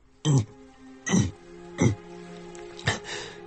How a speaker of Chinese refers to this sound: 清清嗓子，莫小鱼憋出了一句话